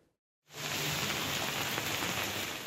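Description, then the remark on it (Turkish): Steady morning rain falls in Istanbul, Turkey, in a continuous hiss, starting abruptly after a brief silence and holding at an even, moderately loud level with no voices. “İstanbul'da e, bu sabah yağmur var İstanbul'da diyerek başladık.”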